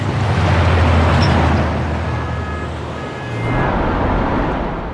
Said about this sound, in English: Okay, we're on the Vigrid Highway. And Bayonetta's walking along as cars go past.